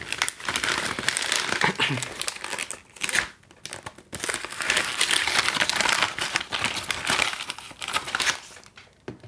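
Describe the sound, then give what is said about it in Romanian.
Packaging wrapper being torn open, a dense run of loud crinkling and crackling plastic that keeps going for several seconds, with a couple of brief pauses between bursts. “O să rup acest ambalaj.”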